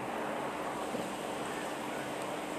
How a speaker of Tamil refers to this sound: இப்போ மழை பார்த்திங்கன்னா அழகாக பெஞ்சிட்ருக்கு